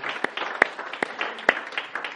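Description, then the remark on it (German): Audience applause given to the Lord: dense, steady crackle of many hands clapping, with a few sharper, louder claps standing out at irregular moments. No one speaks over it. “Geben wir dem Herrn wieder einen Applaus.”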